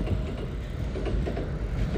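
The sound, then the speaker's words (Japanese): A train rumbles past, its steady low roar carrying a faint rhythmic clatter of wheels over rail joints throughout, loud and continuous with no voices. “ちょっと電車の音がうるさかったかもしれないんですが、はい。”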